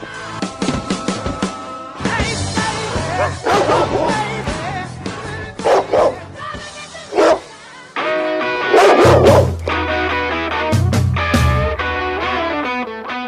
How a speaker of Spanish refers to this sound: Desde las islas del Delta, entre la marea de voces de FM El Ceibal, aquí empieza a ladrar un perro negro.